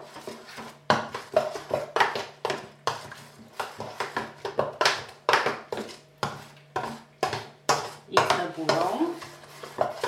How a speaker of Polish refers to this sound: Sprawdzam to zwyczajnie palcami i jeśli nic nie ma, wrzucam jajka do ciasta ziarnego. Teraz mogę sobie już jajka rozmieszać